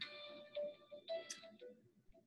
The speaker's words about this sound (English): getting a phone call. All right, uh, you got to answer your phone call.